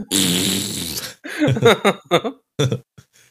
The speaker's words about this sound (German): Er würde sich heute auch noch freuen, wenn du jemanden ein Furzkissen irgendwo drunter packst.